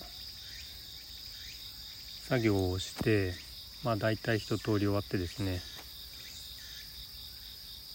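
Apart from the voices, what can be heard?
autumn insects chirping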